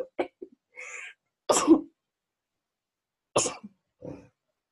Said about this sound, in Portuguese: Vou espirrar.